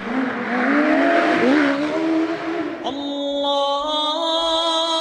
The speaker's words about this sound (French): il fallait apprendre à composer avec, euh, avec cette voiture parfois un peu capricieuse, et, ouais, le, bruit du moteur, le bruit de l'échappement, le bruit de, cette voiture, ouais, peut-être celui que j'associerais au son a marqué ma vie.